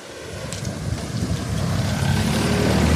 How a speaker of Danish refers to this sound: Ja, hvor der kommer lige en bil.